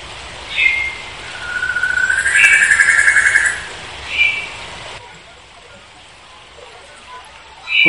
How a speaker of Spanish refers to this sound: Bueno, me pillas aquí en la selva tropical, subido en un secuoya, rodeado de plantas, un colio aquí a mi lado, un helecho, o sea que, que sí, rodeado de plantas.